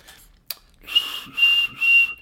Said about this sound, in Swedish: Mycket bra vissling.